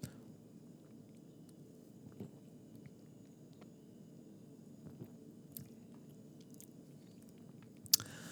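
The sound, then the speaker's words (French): Quiet mouth sounds of someone taking a sip of a beer with lasting foam and swallowing, foam getting on the moustache, with soft wet slurps and small gulps spread over several seconds and a sharper click near the end. “Elle reste là, elle, ne veut pas descendre, donc je vais prendre une gorgée, je vais me mousser la moustache.”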